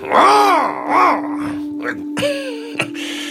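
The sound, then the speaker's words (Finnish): A person's voice imitates an angry cat's growl with two drawn-out, rising-and-falling snarls, then a few shorter rough noises. It comes out sounding rather like a dog. “Okei, no toihan oli vähän niin koira enemmänkin.”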